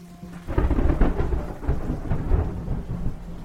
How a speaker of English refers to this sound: It's the evening of April 3rd. As thunderstorms rage outside, Martin Luther King speaks on behalf of the sanitation workers to several thousand followers in downtown Memphis.